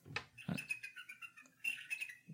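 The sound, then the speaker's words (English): Faint, thin recorded eagle calls played back through a computer's small speaker, high-pitched, piercing cries in two short bursts with a few soft clicks, no one talking over them. “Why won't my computer play eagle sounds?”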